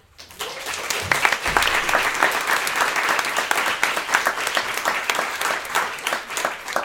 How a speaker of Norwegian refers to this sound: Så jeg er så imponert. Eh, applaus til dere.